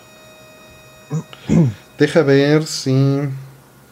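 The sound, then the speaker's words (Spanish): A faint, steady electrical hum with a thin whine runs unbroken beneath the whole recording while a man speaks briefly over it. “Sí, sí hay un zumbido.”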